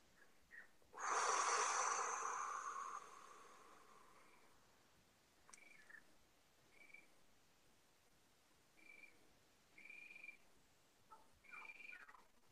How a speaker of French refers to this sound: Alors, ce que vous entendez derrière, en fait, c'est le concert de grenouilles, car il y a un étang ici. Et tous les jours, à la même heure, il y a le concert de grenouilles qui va commencer.